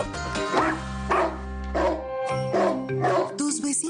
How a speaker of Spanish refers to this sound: están hartos de escuchar que tu perro no para de ladrar y la convivencia está en riesgo?